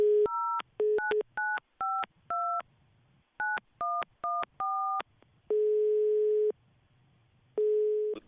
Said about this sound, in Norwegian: Vi ringer en bekjent.